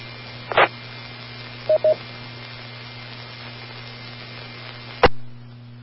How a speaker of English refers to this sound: sorry, I know you didn't want to hear that me coughing in your ear.